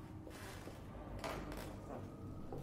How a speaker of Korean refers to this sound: 그리고 섬뜩할 정도의 침묵 사이로 현실의 소리가 들려왔다. 나무 판자가 삐걱거리는 소리.